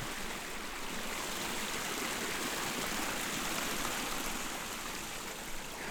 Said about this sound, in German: Als kleines Rinnsal entspringt der Fluss in der Nähe von Toblach.